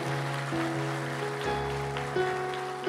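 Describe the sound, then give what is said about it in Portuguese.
An audience gives a round of applause to the Lord in a steady, dense wash of clapping that holds for the full three seconds, with sustained keyboard-like tones droning underneath. “Dê uma salva de palmas ao Senhor aí, aleluia.”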